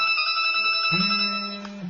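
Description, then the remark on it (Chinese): A bright, steady electronic ringtone tone sounds throughout, with a layered melodic beep pattern holding high pitches, joined midway by a lower sustained tone; no one speaks over it. “谁谁谁电话？谁在电话了？给我挂了！”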